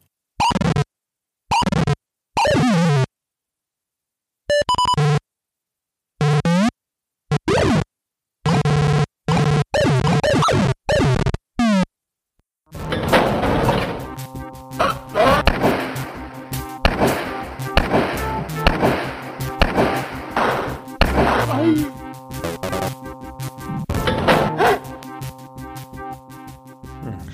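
Crude, buzzy PC-speaker computer game effects, no music, all sounds from interaction with the game world: choppy squawks and beeps meant as gunshots and enemy screams, separated by short silences, then a dense, harsh stretch of continuous noisy bleeping with no talking.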